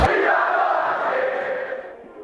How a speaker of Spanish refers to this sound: Qué lindo el grito de Vamos Banfield.